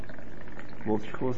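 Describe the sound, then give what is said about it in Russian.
Liquid pours in a steady splashing stream for about a second, then a voice speaks a couple of short words over the continuing flow. “Так, ну-ка, лейся, лейся.”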